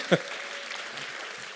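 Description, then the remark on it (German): A church audience claps together in appreciation of a member's donation that bought over 400 copies of a book, a dense, steady patter of many hands that keeps an even level throughout, with one sharper burst right at the start. “Wollen wir nicht mal klatschen?”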